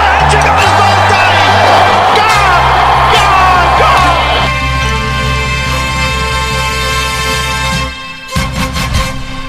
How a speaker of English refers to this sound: Crowd cheers. Here's Siddle. He's got him! He's got him!